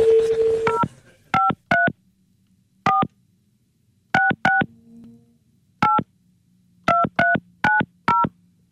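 A telephone number is keyed in as a series of short two-tone beeps, about fourteen presses in irregular bursts of two or three, following a brief steady tone at the start.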